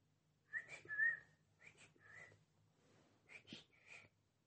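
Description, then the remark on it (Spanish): A person whistles a birdlike song imitating the call of the Pito Juan bird: several short, bright phrases with rising and falling notes, fairly clear, separated by brief pauses. “Es que en realidad seguro que lo estoy asociando porque la gente cuando escucha un Pito Juan dice, Pito Juan, Pito Juan, y lo escuchas cantar y hace”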